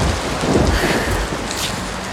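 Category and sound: nature, thunderstorm with rain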